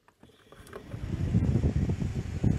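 A small homemade solar-powered fan, connected to the main 12-volt output of a charge controller and run from a battery and solar cell, starts up and quickly builds to a steady whirr, with a low mechanical rumble and gusty wind buffeting the microphone.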